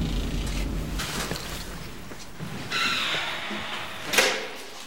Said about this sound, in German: Vierte Etage. Türen öffnen.